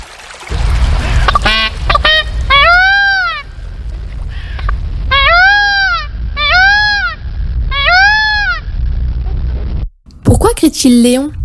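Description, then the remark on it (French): A male blue peafowl gives loud, wailing honks in quick bursts of three or four, repeated several times over a low rumbling background, followed by a brief harsh noise at the end. “Seul le mâle braille ou criaille.”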